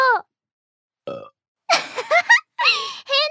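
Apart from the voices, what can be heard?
man burping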